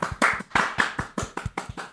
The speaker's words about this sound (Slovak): Počkaj, to, to chce potlesk. Áno.